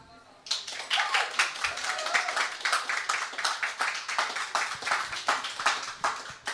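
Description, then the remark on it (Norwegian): A live audience at an event in Arendal, Norway, breaks into sustained applause, many hands clapping densely and steadily for several seconds, with individual claps popping out near the front of the crowd. “Vi tar en applaus.”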